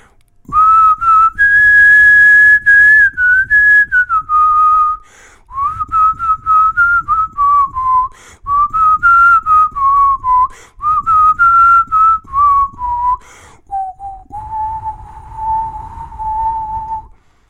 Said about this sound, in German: Gar nicht so einfach, so einen tiefen Ton zu pfeifen, wie da in dem äh, Country-Hit ….